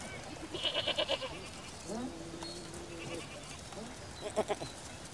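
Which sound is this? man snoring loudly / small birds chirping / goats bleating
goats bleating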